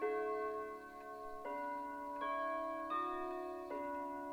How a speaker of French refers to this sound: C'est de nouveau le calme dans le manoir. L'horloge du rez-de-chaussée carillonne et les tintements résonnent faiblement à travers les murs.